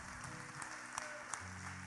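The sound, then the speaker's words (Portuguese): An audience applauds with a steady, dense wash of clapping, fairly soft overall, with a few sharper individual claps standing out and a low sustained hum underneath. No one speaks. “Aleluia, pode aplaudir porque ele merece.”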